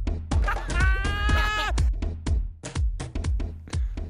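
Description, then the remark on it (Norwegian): A short, punchy jingle with steady, loud percussive hits and a wavering, bleat-like sound early on, with no talking. “Den er rå, den jingeren der.”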